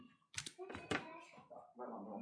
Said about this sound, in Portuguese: Deixa eu só fechar essa porta aqui rapidinho.